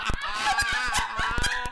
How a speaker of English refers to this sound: is this is Golda talking. What is she saying? Yeah, so my dog talks. She's saying out. Daddy.